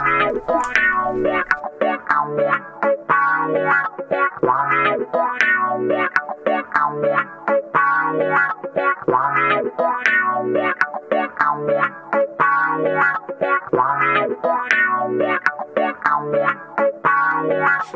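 A steady music track from an album plays at full volume, with a repeating rhythmic groove, dense harmonic layers and processed, effects-heavy instrumentation throughout, no talking over it.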